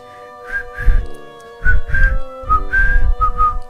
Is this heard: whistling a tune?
yes